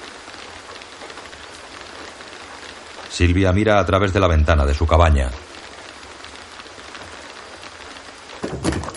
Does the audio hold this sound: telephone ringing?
no